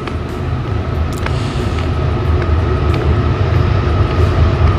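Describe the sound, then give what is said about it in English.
A train rumbles past, a loud, steady low roar with rattling wheels and faint metallic clicks, slowly growing louder over a few seconds with no talking. “Wow, hear that train.”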